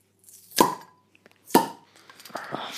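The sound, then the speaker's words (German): Two 0.33-litre swing-top bottles of Kellerbier pop open one after the other, each a sharp plop with a brief hollow ring, followed by a faint fizzing rustle. “Also ich würde sagen, wir lassen jetzt mal plöppen und ja.”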